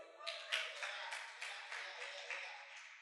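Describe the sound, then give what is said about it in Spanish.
A short stretch of applause: many hands clapping together in a dense, steady patter with a few sharper claps standing out, fairly quiet and with no voices. “Ah, un aplauso.”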